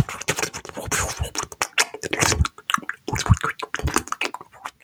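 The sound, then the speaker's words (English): Wet, crackling soap foam rubbed onto a face, with soft squelches and repeated bursts of bristly scraping in an uneven rhythm, fairly quiet and with no voices. “I think you should just give us a, one last burst of your your soap. Yeah. Okay. Okay. That's it. It's all foaming up.”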